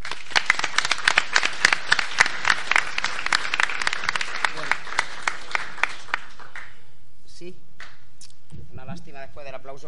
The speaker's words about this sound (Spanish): Es una pena para una vez que me aplauden y no puedo decir nada luego.